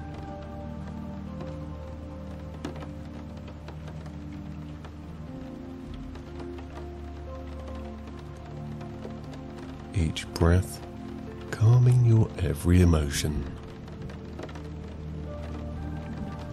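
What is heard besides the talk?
rain falling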